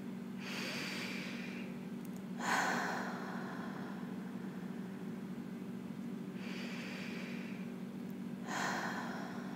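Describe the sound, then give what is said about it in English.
Slow, deep breathing: four long airy breath sounds, inhales and exhales in two unhurried cycles separated by quiet pauses, with no talking; deep breaths into the body, the belly expanding on each inhale. “And I'd like you to take three really deep breaths in.”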